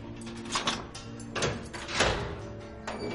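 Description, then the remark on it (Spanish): A door in an underground tunnel is opened with a few scraping, rattling bursts of mechanical noise over about three seconds, fairly loud against a low background hum, with no voices. “Abre una puerta.”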